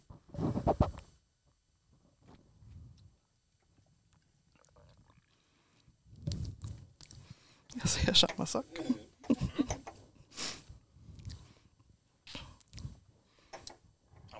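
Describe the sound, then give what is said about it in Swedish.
Wet, clicky lip smacks and mouth sounds come in short irregular bursts as someone tastes a drink, mixed with brief murmured speech and a quiet hum of approval. “Du bara står och smaskar. Mm, jag står och smaskar och funderar på, för jag, jag kände mig direkt att jag for tillbaka till någon gammal trädgård och åt ett gott äppel faktiskt.”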